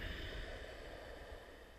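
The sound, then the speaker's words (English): A deep, audible breath taken during a breathing practice, a soft, airy rush of air that stays steady and quiet throughout, with no one speaking. “You'll notice that not only is the breath audible, but over time it starts to have a musicality to it.”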